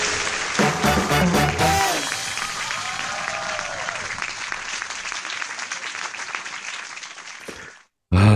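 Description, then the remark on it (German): A short jingle: a brief burst of music at the start, then loud, sustained applause and crowd noise that cuts off abruptly near the end. “da habe ich dir gerade noch rechtzeitig den Jingle hier reingeholt.”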